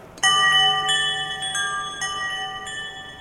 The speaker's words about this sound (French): Cette frappe est transformée en courant électrique. ce courant électrique ensuite est transformé en signal numérique pour aller chercher le son dans un ordinateur. Je vais vous donner un exemple. Là, je vais frapper une plaque.